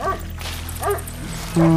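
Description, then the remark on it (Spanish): Dogs bark in three short, separated bursts, moderately loud, the last one louder and more drawn out, with no one talking. “Oh no, son los perros de nuevo.”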